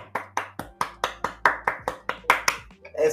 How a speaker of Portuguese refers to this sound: Ó, aqui é uma salva de palmas ao vivo